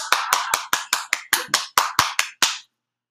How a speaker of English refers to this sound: Let me get a round of applause.